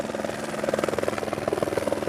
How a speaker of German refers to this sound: Wie in Robert Altmans Meisterwerk Shortcuts hört man mehrmals Hubschrauber über den Häusern kreisen, ist Paranoia dauerpräsent.